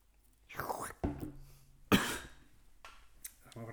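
Several harsh, breathy coughs from a man who is ill, coming in three rough bursts over a couple of seconds, followed by quieter throaty noises.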